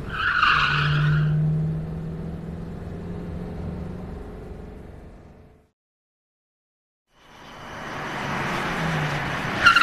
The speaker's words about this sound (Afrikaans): O oh, hier hier kom die motorfiets. Meneer, eh, daar is 'n motorfiets eh, wat al agter my aanry.